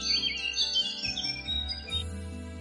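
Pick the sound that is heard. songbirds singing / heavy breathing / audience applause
songbirds singing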